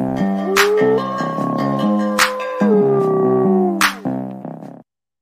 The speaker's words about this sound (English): We'll uh we'll see where that is, and let's do let's do another howl.